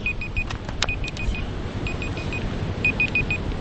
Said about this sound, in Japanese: タイマーはどうやって消すんですか、これは。